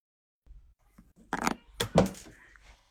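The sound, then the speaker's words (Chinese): A pen drops and clatters, giving two quick sharp knocks a moment apart, followed by a short rattling tail over a faint low background hum. “啊，笔掉了”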